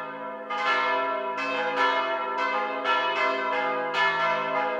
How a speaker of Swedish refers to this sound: Men jag såg också många olika kyrkor. Det var stora och vackra kyrkor med gigantiska stora kyrkklockor som slog ofta.